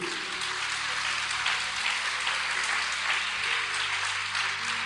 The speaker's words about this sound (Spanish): Dale fuerte ese aplauso a Cristo.